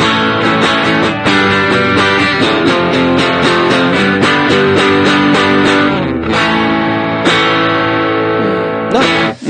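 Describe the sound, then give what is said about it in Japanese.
Electric guitar played through a distortion pedal with the gain turned down to about the 9 o'clock position, still sounding fairly saturated: loud, dense strummed chords with repeated attacks, a brief dip partway through, and no talking. “今、歪みが9時ぐらいまで下げてますね。”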